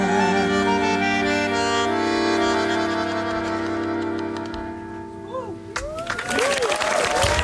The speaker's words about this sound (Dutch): En ze blijven maar klappen daar. Dat, misschien doen ze dat nu nog. Nee, ze zijn wel weg.